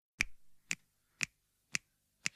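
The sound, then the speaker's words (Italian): Five crisp finger snaps in a steady, even rhythm, about two per second, clear with nothing else playing around them, like the opening beat of a rock song. “visto che di sovrani si parla, ascoltarci …, …, in onore della regina di questo questo gioco”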